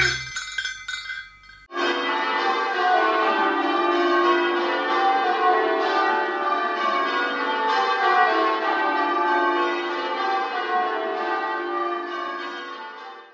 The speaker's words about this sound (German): Ich finde den Klang von Glocken herrlich, mächtig, bedeutungsvoll.